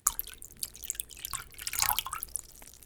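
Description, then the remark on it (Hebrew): A quiet trickle of water being poured for a refugee family to drink, with irregular splashes and drips that swell briefly near the middle before easing off. No one speaks. “הנה, שתו מים.”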